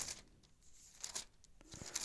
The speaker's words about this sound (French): Vous entendez les feuilles de ma Bible.